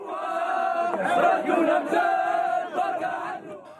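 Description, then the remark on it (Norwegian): A loud crowd at a federalist demonstration in Benghazi chants and shouts together in unison outdoors, voices massed and sustained with rising surges, dense throughout. “Dette er lyden av en føderalistdemonstrasjon i Benghazi i november i fjor.”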